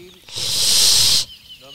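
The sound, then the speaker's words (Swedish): A cat that will not let go of a plastic bag of old cold potatoes lets out one sharp hiss at a person, lasting about a second, a loud airy burst that cuts off abruptly, with faint voice traces just after it. “Katten fräser lite mot dig och släpper inte taget om den här plastpåsen med gamla kalla potatisar.”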